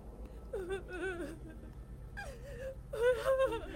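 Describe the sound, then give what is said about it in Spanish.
A girl sobs in three shaky, high-pitched bursts, her voice quavering and breaking between whimpering cries, fairly clear against a faint low rumble. “Decía que escuchaba a su hija caminar por su casa y que a veces escuchaba sus sollozos.”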